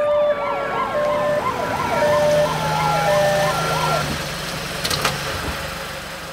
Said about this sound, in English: The ambulance rolled up a few minutes later.